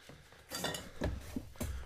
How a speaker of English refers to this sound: Watch the broken fucking glass, by the way.